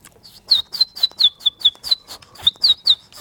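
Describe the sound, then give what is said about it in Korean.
A child's voice imitates a baby chick's peeping on a radio broadcast, with about a dozen high, short chirps in a quick, steady series, clear with no talking. “병아리 소리 한번 들어보겠습니다.”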